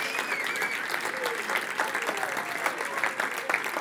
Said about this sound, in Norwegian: Så en skikkelig applaus til Hege og Tina.